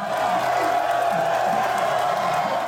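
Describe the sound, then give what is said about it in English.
A large crowd of baseball fans roars and cheers continuously, a dense wash of voices with scattered whoops rising out of the noise, loud and steady throughout. “You walk into a baseball game and hear the roar of the fans.”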